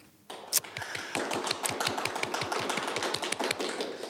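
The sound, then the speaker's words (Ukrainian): A live crowd of people who contributed to a fundraiser applauds, not overdubbed, with dense, sustained clapping that starts abruptly after a brief quiet moment and continues steadily at an even loudness, with no voices. “І як не дивно, це не накладені оплески, це всі ті люди, які скидались на той збір.”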